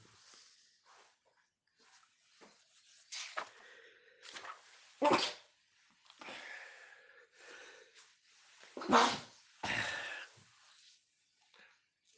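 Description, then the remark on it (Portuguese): Several sharp, breathy sneezes burst out one after another at uneven intervals, loud, with quieter snuffling and breathing noises in between. “saúde para todo mundo.”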